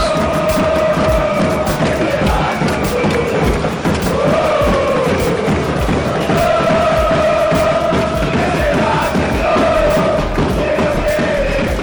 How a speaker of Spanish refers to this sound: El pueblo empezaba a manifestar su descontento. Salía a las calles golpeando sus cacerolas y pidiendo que, se vayan todos.